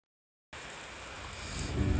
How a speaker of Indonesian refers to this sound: Kau dengarkan suara hujan malam ini pukul 2.06